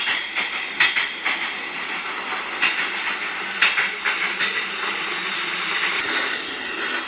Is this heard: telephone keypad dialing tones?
no